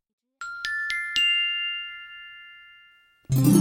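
A small bell rings out in four quick strikes, its bright tone lingering and slowly fading for a couple of seconds before another louder sound abruptly cuts in.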